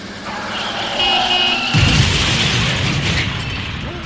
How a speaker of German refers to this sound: Der titi Wippimann wurde eben gerade von einem Auto überfahren. Das ist das Ende vom titi Wippimann.